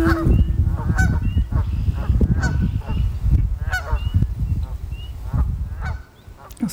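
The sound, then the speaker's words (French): Loud duck calls honk and quack over and over in a dense, overlapping flurry at the end of a song, as if several birds are calling at once, before cutting off abruptly near the end. “pas trop ce qui arrive au canard à la fin de ce titre.”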